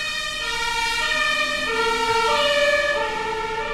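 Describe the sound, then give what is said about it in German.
A police siren passes outside a window, a loud, continuous wail of bright harmonic tones that shift up and down in pitch, with no one talking over it. “Die fahren dann halt auch direkt vor meinem Fenster lang.”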